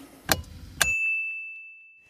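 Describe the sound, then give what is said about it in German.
Two quick glass clinks, bright, the second leaving a clear high ring that slowly fades out into silence, like glasses touched together in a toast. “In diesem Sinne. Prost.”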